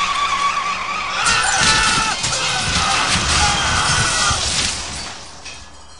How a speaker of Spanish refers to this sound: Instantes después, el auto volcó, dando varias vueltas.